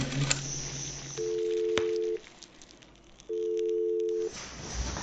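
Two long, steady telephone-line tones, each lasting about a second with a pause between, over faint hiss and a few soft clicks; no one speaks.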